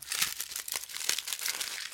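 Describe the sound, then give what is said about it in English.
Continuous crinkling of paper or foil, a dense stream of crisp crackles and rustles lasting the whole two seconds with no voices. “Or if like someone's like crinkling paper up. Yeah, I can hear the paper.”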